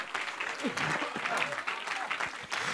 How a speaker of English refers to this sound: Let's clap our hands together one more time.